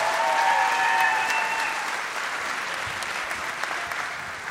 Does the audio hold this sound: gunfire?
no